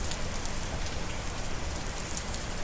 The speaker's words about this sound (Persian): آسمونم نامردی نکرد و کامل زیر بار امانت رو خالی کرد شر شر بارونش رو شدیدتر کرد که تا من باشم دیگه با آسمون کری خونی نکنم